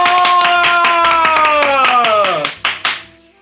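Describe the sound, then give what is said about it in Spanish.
Brisk, loud applause from a small group, with a long drawn-out vocal cheer sliding downward over the clapping before it thins to a few last claps. “¡Aplausos!”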